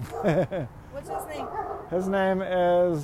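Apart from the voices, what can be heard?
dog barking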